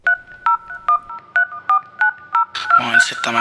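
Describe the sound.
About seven crisp touch-tone keypad beeps ring out at a steady, even pace, loud and close, before a voice begins over the end of the dialing.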